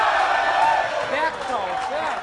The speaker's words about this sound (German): Also ich glaube, die jubeln einfach nur aus Prinzip da.